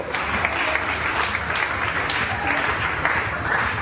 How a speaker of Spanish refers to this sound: Sí, mira, nos va a ayudar. Sí, dale un fuerte aplauso.